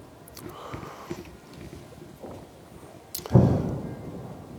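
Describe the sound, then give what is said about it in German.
Firework explosions: a few soft, dull thumps rumble at first, then a sharp crack gives way to one loud, deep boom that rolls and slowly fades over about a second. “Uiuiui, da ist was Größeres explodiert.”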